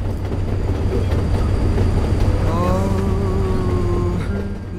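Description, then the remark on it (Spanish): From the film La Jaula de Oro, a train carrying people riding on it from Central America toward the north rumbles steadily along the rails, a loud continuous low roar with a high metallic squeal of wheels rising partway through, without any voices. “Un viaje desde el centro de América hacia el norte del continente, trepados en un tren, cruzar el Río Grande y alcanzar el sueño dorado.”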